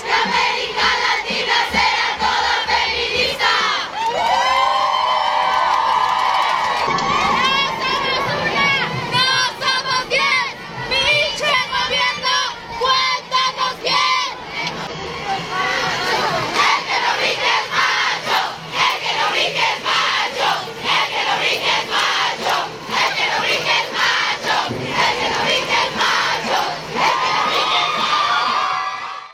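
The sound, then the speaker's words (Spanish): A large crowd of women chants and shouts in protest against violence against women, loud and sustained, with rhythmic bursts of voices and high-pitched cries rising over the din throughout. “Estas mujeres el día de hoy están alzando la voz para que ya termine toda esa violencia contra las mujeres.”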